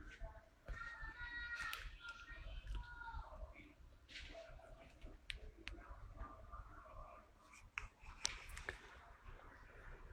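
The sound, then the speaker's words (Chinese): Keyboard typing: a scattered run of faint, irregular key clicks, some in quick bursts and others spaced apart, over a low steady background hum with a brief muffled voice early on. “喂，你们在打字吗？”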